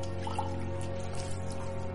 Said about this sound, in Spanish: Proteo se levanta y sirve agua en una taza.